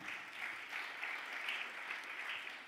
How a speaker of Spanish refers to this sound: de otro aplauso fuerte al Señor.